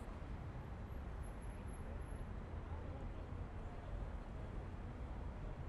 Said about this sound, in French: Les voitures arrivent en flux continu de Paläsenstraat au sud.